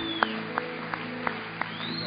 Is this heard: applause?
yes